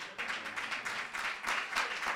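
A crowd claps together in a steady, dense patter of overlapping hand claps, sustained and fairly loud throughout with no voices standing out.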